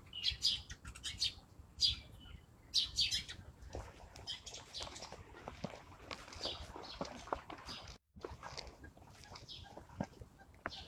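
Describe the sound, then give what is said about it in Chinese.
A flock of about fifty or sixty sparrows, which nest on the pavilions of the Summer Palace, chirps in a dense, overlapping chatter of short, high-pitched tweets that continues throughout, with faint soft footfall-like thumps underneath and a brief dropout near the end. “这群麻雀大概有五六十只吧。”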